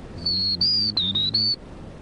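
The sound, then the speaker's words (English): A person whistles an imitation of a black-throated green warbler's song: four or five clear, high, sliding notes in a quick run, fairly loud, with a low hum underneath. “Or depends on the bird's uh, you know, if they had the buzzy, like prairie warbler, or a black-throated blue, or black-throated green.”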